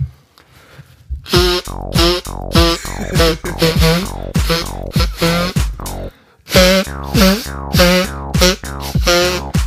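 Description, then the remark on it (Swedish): A rapid series of loud nose blows, each a short honking, pitched burst that slides downward, with a brief pause partway through before the honking resumes. “Ah, men fan vad du ska snyta dig.”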